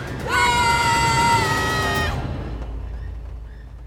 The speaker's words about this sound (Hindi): कुछ देर बाद उन दोनों की चीखों से कंचन पहाड़ का सारा जंगल गूंज उठा